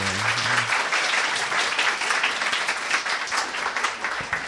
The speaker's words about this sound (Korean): 일단 용기 내셔서 나오시니까 박수 한번 주실까요, 여러분?